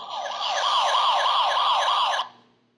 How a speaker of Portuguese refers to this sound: Ó, vou até tocar a sirene aqui, porque é um ponto